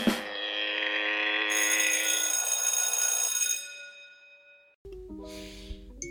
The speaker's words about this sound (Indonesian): Jadi kali ini buset nih notif tereng tereng bacot banget.